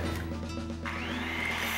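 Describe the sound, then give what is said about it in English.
A brand-name power tool from Eagle Hardware, used by Edgar Martinez to make a light bat, runs steadily, its motor droning loudly, then revving higher partway through with a rising whine that holds to the end. No one speaks. “well, once again, Edgar Martinez is using Eagle Hardware's incredible selection of brand name power tools for his latest project.”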